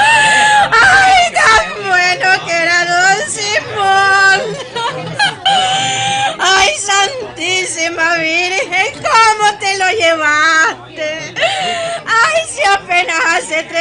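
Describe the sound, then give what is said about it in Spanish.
A voice imitates the loud, theatrical wailing of a hired mourner dressed in black beside a coffin, rising and falling in drawn-out sobbing cries that repeat almost without pause, intense throughout. “Andaba vestida de negro y lloraba como si hubiera conocido al disjunto en toda la vida. Eran alaridos los que daban.”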